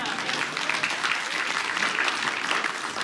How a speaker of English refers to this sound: All right, very good. So, round of applause for these two, real quick.